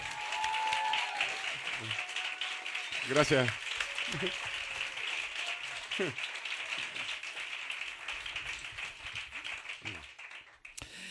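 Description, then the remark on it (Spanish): Studio audience applause welcoming guest Ignatius Farray to a radio studio, a steady, dense wash of clapping that holds for the whole stretch, with a few brief spoken words and voices cutting through it. “Os respetamos tantos a los invitados que os recibimos con este aplauso al gran Ignatius Farray.”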